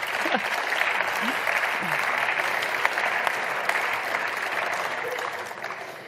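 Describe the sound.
An audience applauds steadily for several seconds, a dense, even wash of clapping at constant loudness that tapers slightly at the end, with a few faint voices mixed in.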